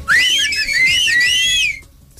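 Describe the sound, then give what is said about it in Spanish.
A person whistles a lively, warbling melody, the pitch gliding and trilling up and down for nearly two seconds before stopping, with faint low background noise underneath. “no lo van a creer, pero hoy también es el Día del Silbido.”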